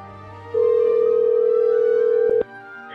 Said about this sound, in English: And at around 8 o'clock, the phone rang.